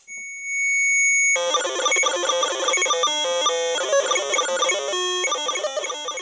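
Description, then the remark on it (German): A Cosmos DIY sound machine kit with black plugs inserted: a steady, piercing electronic tone gives way to a loud, busy stream of buzzy synthesized beeps that shift pitch rapidly in a choppy, rhythmic pattern, with no voices. “Ich habe jetzt hier noch so schwarze Stecker gefunden. Und wenn ich die alle reinstecke, verändert sich der Sound.”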